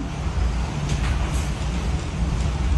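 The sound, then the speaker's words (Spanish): A steady, loud roar of powerful hurricane winds rumbling outside, deep and continuous with slight surges, filling the whole stretch without any pauses or voices. “El sonido del huracán es horrible.”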